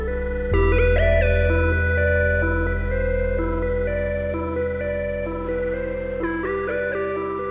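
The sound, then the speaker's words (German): An eerie, sustained whistling tone glides between a few held pitches over a low, steady drone, loud and continuous throughout, with no voices, heard shortly before nightfall. “Natürlich hört sie das Pfeifen wieder.”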